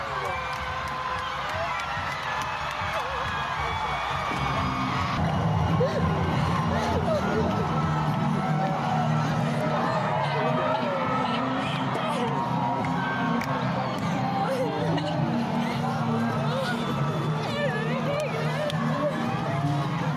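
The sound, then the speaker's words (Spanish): A large crowd waving green handkerchiefs erupts in sustained cheering and screaming as a bill is approved into law, a dense roar of many voices shouting in celebration with whoops and cries rising over the noise throughout. “el distanciamiento social quedó en el olvido y toda la energía en el aire se fusionó en un gran abrazo colectivo y en llantos y gritos”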